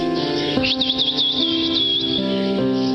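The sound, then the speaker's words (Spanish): A man, the owner of a puppy shop, whistles: a high, warbling whistle rising and falling in quick wavering notes for about a second and a half, riding over steady background music whose sustained chords shift every second or so. “hombre sonrió y silbó.”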